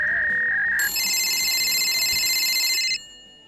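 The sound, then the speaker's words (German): A phone rings: a steady, high electronic tone for under a second, then a brighter, buzzing chord of tones that holds loudly for about two seconds before cutting off. Nobody speaks. “Oh, es läutet jemand an.”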